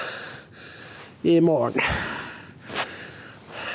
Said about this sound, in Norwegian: Nå peser jeg fælt, for det er faktisk tungt å gå.